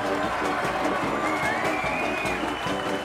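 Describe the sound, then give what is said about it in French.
A large crowd applauds and cheers loudly and continuously for a procession of 25 farmers' union tractors, a dense wash of clapping with voices shouting over it and a whistle rising briefly through the noise. “Nous allons défiler avec 25 tracteurs de la Confédération paysanne et c'est cela qu'il faut applaudir très très très très très fort.”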